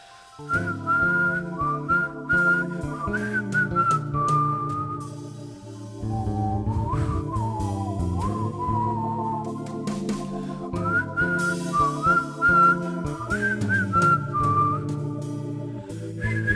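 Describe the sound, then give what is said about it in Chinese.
A high, clear whistled melody from a song demo carries a wandering tune in short phrases with slight bends, playing steadily over a fuller instrumental accompaniment with a low backing line throughout. “你听到这个口哨声呢？”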